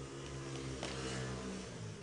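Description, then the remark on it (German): A motorcycle engine drones steadily outside an open window, its low humming tone holding for a couple of seconds as it passes, with no voices over it. “Oh, dieser Motorradfahrer will auch immer im Podcast sein.”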